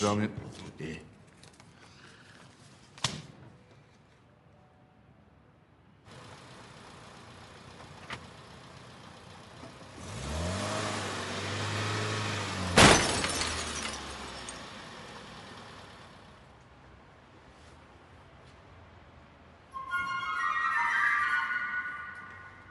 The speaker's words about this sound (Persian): یا خود خدا زد ماشین داغون کرد